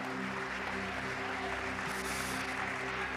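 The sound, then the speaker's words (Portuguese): An audience applauding, a steady dense wash of many hands clapping at once, with a low sustained musical hum beneath it throughout. “Isso, aplaude, aplaude a ele.”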